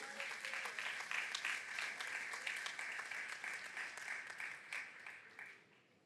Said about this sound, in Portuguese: Será que vocês podem levantar as suas mãos e aplaudir a Jesus com alegria?